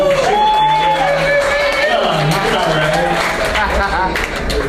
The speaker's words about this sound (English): Thanks for coming back up, man. That's awesome. Good to see you again. You gotta clap for your boy